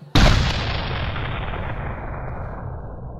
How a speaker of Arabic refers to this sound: وبتبدأ الحكاية إنه في مرة جاله مدفع هدية من والي صديقه وصديقنا خشقدم راسه ألف سيف إنه يجرب المدفع أول ما وصل فعمر يا ابني انت وهو واضرب كده وسمعني صوته